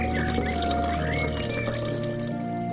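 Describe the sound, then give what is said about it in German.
Water is poured onto a plant in a steady, continuous stream for a few seconds, a gentle splashing trickle with a faint rising gurgle as it lands, with no voices present. “Ja, du bekommst auch noch ein bisschen Wasser.”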